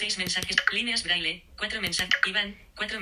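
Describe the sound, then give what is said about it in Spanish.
A few quick presses of the right arrow key click under a continuous, fast synthetic-sounding voice, the taps brief and mixed in with the steady talking, as someone moves through the messages of a chat. “Estoy haciendo clic hacia derecha, ¿veis?”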